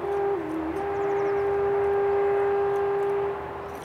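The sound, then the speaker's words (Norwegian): A faint, steady traffic hum from the E39 motorway, heard at the Skeie farm in Vinjeøra, Norway: a continuous low wash of noise with a sustained droning tone running through it, holding level for several seconds before easing slightly at the end. No voices. “Suset fra trafikken på E39 når oss så vidt her vi befinner oss på gården Skeie på Vinjeøra.”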